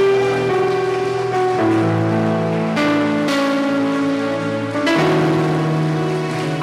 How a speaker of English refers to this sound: Stand to your feet, somebody give Jesus a big hand clap. Hallelujah.